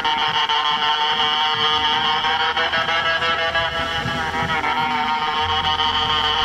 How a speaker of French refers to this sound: C'est un boîtier avec un bec dans lequel on souffle, on parle comme on veut, tout en actionnant des touches et des potentiomètres. La démo que t'entends là a été enregistrée cette année au NAM de Los Angeles.